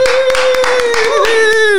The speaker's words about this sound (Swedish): Och så fortsätter vi med den här applåden och säger välkommen till